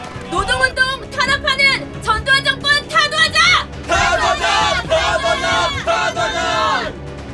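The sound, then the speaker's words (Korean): A crowd of university students, locked arm in arm in a scrum near Guro Station, chants protest slogans against the regime's suppression of the labor movement in loud, rhythmic bursts of shouting voices, the chanting swelling fuller and denser partway through as more voices join in unison. “이걸 신호로 구로역 지하철과 버스에서 내리는 대학생들, 골목에서 뛰어난 대학생들이 스크럼을 짜고 구호를 외친다.”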